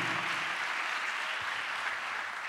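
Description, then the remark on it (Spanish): An audience applauds God at the preacher's invitation, in a steady, dense wash of clapping that holds at an even level for a few seconds, with no voices standing out. “Y mire, sí, puede dar un aplauso a Dios si quiere.”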